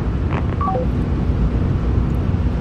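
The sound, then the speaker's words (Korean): A phone line chimes three quick descending electronic beeps right after the other party hangs up first, then only a steady, rushing hiss remains. No one speaks. “먼저 끊으면 뭐 자존심이 지켜진다고 생각하는 건가?”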